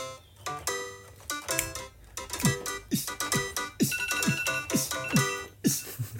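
A kitchen timer alarm, signaling that pasta is ready, plays a bright electronic melody with steady, regular thumping beats underneath, looping at a moderate volume for several seconds with no one talking.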